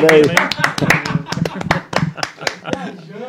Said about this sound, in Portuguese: Uma salva de palmas.